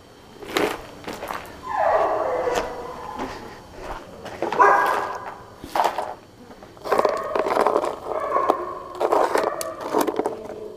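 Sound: dogs barking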